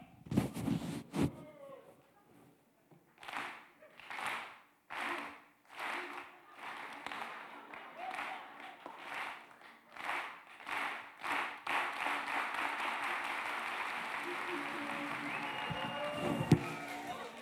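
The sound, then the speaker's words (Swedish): An audience doing a rhythm exercise claps together in slow, steady unison beats that gradually speed up and dissolve into continuous loud applause, with a few scattered voices underneath. “när, du, när du klappar, vi kan, vi kan göra en övning.”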